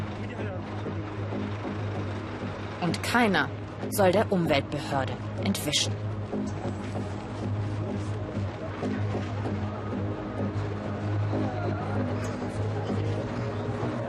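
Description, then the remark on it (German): Heavy trucks and buses carrying passengers from across East Africa rumble at Rwanda's border with Uganda with a steady, low engine drone, punctuated early on by a few brief squeals, while a man speaks over the traffic noise. “Hunderte von LKWs und Busse mit Fahrgästen aus ganz Ostafrika fahren hier täglich entlang.”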